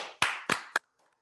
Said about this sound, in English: This is really good for an audio type podcast. There's a lot of clapping, a lot of la- rapid, loud noises. That's what people like to hear.